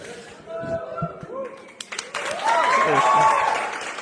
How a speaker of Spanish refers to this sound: Es que ya que aplaudieron me entusiasmo.